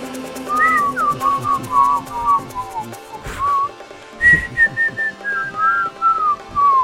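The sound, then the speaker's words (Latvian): A person whistles a low, wavering tune in two slow descending phrases separated by a short break, clear over a faint background rumble. “es nemāku tik, tik zemu silbāt.”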